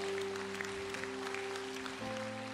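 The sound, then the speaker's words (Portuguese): A crowd at a sermon claps steadily in a dense, continuous wash of applause for God's name, with a sustained organ-like musical tone holding underneath and shifting pitch near the end. “Pode aplaudir o nome dele em nome de Jesus.”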